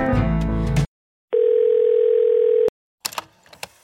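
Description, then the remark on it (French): A steady, single-pitched telephone voicemail beep, signaling the caller to leave a message, sounds for over a second, loud, between bursts of other audio before and after it. “Merci de bien vouloir me laisser un message après le bip sonore.”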